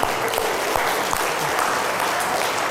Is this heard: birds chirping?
no